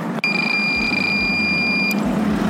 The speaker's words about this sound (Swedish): Ja, gick det 40 då. Och det är ju 10 över vad som är godkänt på den här vägen. Så den här bilen kommer vi vinka in.